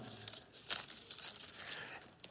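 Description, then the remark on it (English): Soft, continuous rustling of Bible pages as an audience opens their Bibles to Psalm 96, many overlapping flips and crinkles blending into a steady papery wash, with one brief louder riffle. No voices. “Psalm 96 you have your Bibles, and I years ago as a, as a pastor, I, I would get so excited when I would hear, I would always say, This is my favorite sound.”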